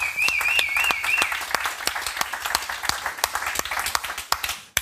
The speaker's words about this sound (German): Super. Applaus.